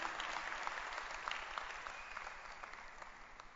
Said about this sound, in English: Clap your hands for her. Beautiful.